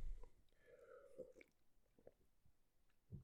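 Someone gulps down water first thing in the morning, a few wet swallows and mouth noises in quick succession, quiet with no talking.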